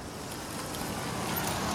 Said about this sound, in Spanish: Creo que está llegando el auto con Eva. Sí, ahí llega.